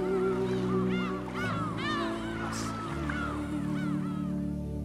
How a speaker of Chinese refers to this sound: 飞翔的海鸥，三两成群，追赶着浪潮的自由。